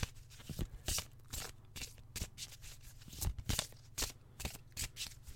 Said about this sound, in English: so I'm going to give the cards a really good shuffle apologies if you're listening to this on headphones. It probably sounds like sandpaper. I do apologise.